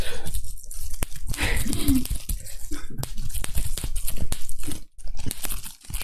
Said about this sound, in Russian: Костер, костер. Искры костра, дым, ночь.